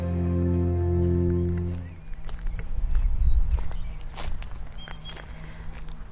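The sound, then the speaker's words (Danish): A sustained musical tone ends after about two seconds, then steady footsteps walk outdoors in Viby near Aarhus, Denmark, on the way to Søndervangsskolen school, a series of crisp steps over a low rumble of ambient background noise. “Jeg går lige nu rundt i Viby ved Aarhus, og jeg er på vej hen til det, der hedder Søndervangsskolen.”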